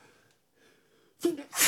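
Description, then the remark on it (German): A single loud sneeze bursts out after a moment of faint, quiet sounds: a sharp intake followed by a forceful, hissing release at the end. “Und jetzt muss ich nüs.”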